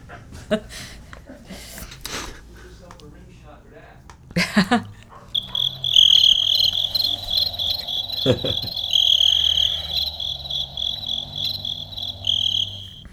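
A steady, high-pitched chorus of crickets chirping, fairly loud and continuous through the second half, preceded by a few brief knocks and rustling noises.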